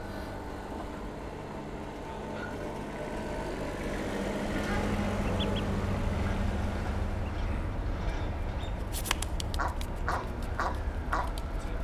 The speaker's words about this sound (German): ein paar Enten schnattern, aufgescheucht von einem Hubstapler, der Kisten voller Mist aufbaut.